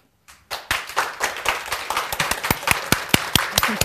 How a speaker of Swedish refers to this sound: Enstaka klappningar.